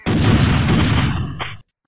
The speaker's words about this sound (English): A rock steady point, a covey rises, over-unders ring out.